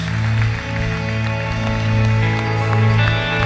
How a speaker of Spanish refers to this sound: Si tú conoces en tu corazón y has experimentado que Dios es un Dios bueno, quiero que lo demuestres dando un aplauso fuerte que llene todo este santuario, que llene los cielos.